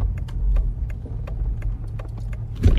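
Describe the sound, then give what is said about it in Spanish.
A parked car engine idles in Buenos Aires with a steady low rumble, punctuated by faint ticking clicks, then a brief louder thump near the end. “Estaciona su auto.”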